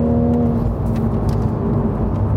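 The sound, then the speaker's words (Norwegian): A sports car with a BMW engine of 340 horsepower and 500 Nm drones steadily while driving, a low rumbling hum with faint airy hissing bursts on top, continuous with no talking. “hører du at den hveser litt.”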